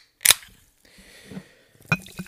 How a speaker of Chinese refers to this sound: 各位听众，大家好，你好，你好，你好，让我一起听一听气泡水的声音。